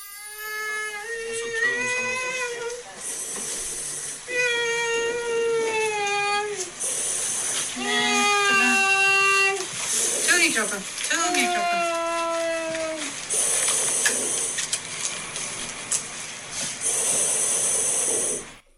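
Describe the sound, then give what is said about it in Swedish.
Repeated loud hissing inhalations of nitrous oxide (laughing gas) through a gas mask during labour, several drawn-out breaths, alternating with long, wavering moaning vocalizations between them. “Du hör ju hur jag suger in ja. lustgasen.”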